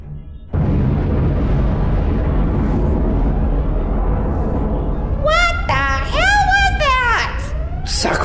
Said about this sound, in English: murder, an explosion.